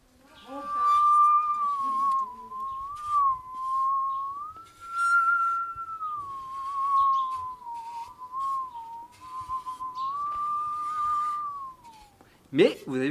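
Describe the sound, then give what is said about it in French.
An ordinary woodworking panel saw from a workshop, not a circular saw, bowed as a musical saw, sings one sustained, wavering ethereal tone for about eleven seconds, sliding gently up and down with vibrato, with light rustling in the background. “avec une scie de votre atelier, une scie égoïne, hein, pas une scie circulaire, une scie égoïne, ça fonctionne”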